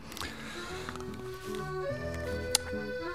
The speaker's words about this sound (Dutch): Ja, u hoort het aan de muziek. Wij zijn er doorheen.